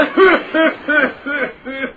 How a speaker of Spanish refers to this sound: Cálmese. Está gritando, tiene que apretarle la tos. Maldita tos. Nunca se me va a quitar.